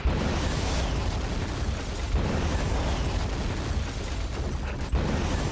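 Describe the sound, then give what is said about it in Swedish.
A loud explosion sound effect: a dense, roaring blast of low rumble and crackling noise that stays heavy for several seconds without fading, with no voices. “Den här explosionen kostar 5 kronor, ska vi köpa några fler?”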